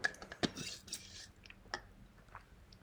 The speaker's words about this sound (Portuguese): Desculpa, estava a beber água.